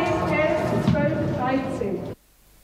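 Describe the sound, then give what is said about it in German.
A French female tour guide at Fort Douaumont imitates the din of past battles, a continuous strained, rumbling vocal noise lasting about two seconds, fairly loud, before cutting off abruptly into near silence. “Im legendären Douaumont imitiert die französische Führerin den Lärm vergangener Schlachten.”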